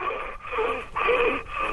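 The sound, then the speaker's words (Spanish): A person imitates the labored, wheezing breathing of a dog that was very ill with a heart condition: four raspy, strained breaths alternating in and out in a steady rhythm, fairly loud, with no speech. “Algunas veces sí la actitud me pasó hace poco un perrito que estaba y respiraba”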